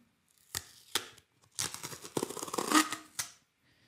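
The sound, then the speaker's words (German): Tape being peeled off to open a sealed hole: two sharp crackling snaps, then about two seconds of loud, uneven crinkling and ripping, ending in one last tug. No one speaks. “Ich habe jetzt extra das, dieses Loch mit Tape zugemacht, falls da was rauskommt.”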